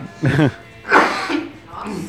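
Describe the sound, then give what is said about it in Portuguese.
A boy coughs and clears his throat in a few rough bursts: a voiced hack, then a louder harsh cough, then a softer one trailing off. “O cara começa a tossir, não aguenta mais falar.”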